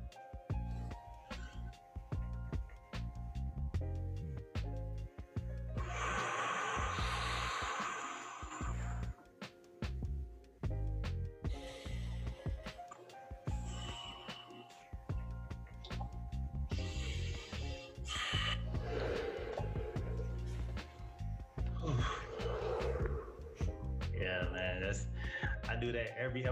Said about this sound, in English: So take a deep breath in and deep breath out.